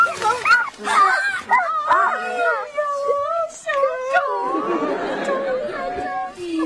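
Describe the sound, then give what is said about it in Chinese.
A hiding puppy whimpers and yips in a rapid run of high, sliding whines that rise and fall, several overlapping, before giving way to a burst of rustling, scuffling noise. “小狗，你怎么能藏这里呢？”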